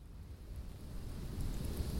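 Soft, steady rain hisses throughout, over a low, rolling rumble like thunder. The sound stays fairly quiet and even for the couple of seconds, with no voices.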